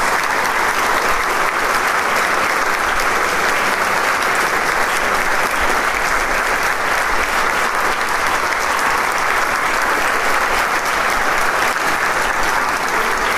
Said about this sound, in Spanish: el público insiste en el aplauso y que salgan por un momento los maestros.